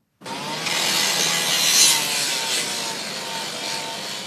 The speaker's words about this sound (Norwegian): Foruten lyden og lyset fra ei sirkelsag som trenger seg gjennom bussveggen, er det mørkt og stille på staden der minst 37 mennesker mista livet i går kveld.